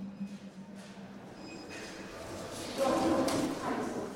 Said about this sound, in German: Die Kassen befinden sich im Eingangsbereich und ihr hört jetzt schon am Hall in der Aufnahme, das alles hat recht große Dimensionen.